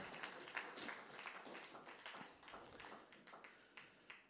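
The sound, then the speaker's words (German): An audience claps steadily for several seconds as people are called up onto a stage, a dense patter of many hands at moderate volume with no voices heard. “komm, gebt doch Ihnen herzlichen Applaus.”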